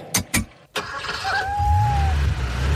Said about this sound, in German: Oh, oh, oh nein, das Auto fährt auf die Kätzchen zu.